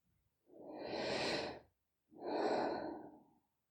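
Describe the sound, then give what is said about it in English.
A slow, deep breath drawn in and then released, two broad airy swells of about a second each with a short pause between, fairly quiet, with no talking. “But just for a moment, think about your breath. As you take it in and let that breath go.”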